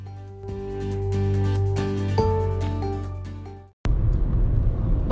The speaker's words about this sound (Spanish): estoy grabando en un coche, en marcha. Tranquilos, no estoy conduciendo, pero estoy en un reducto que podéis escuchar ruidos, ¿vale? Aviso.